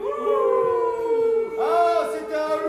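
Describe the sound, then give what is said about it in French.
Several voices imitate a wolf howling, holding long wavering 'ooo' tones that rise and bend in pitch, loud and overlapping, with a second swell of howls joining partway through. “Et là, bien, bien, elle a entendu le loup. qu'est-ce qu'il faisait, le loup”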